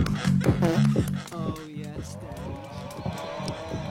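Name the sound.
cow mooing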